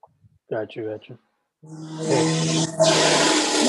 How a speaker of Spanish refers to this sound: un momento, pasó una motora, no sé si la escuchaste.